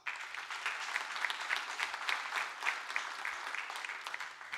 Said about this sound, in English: So, could you welcome our panel with a round of applause?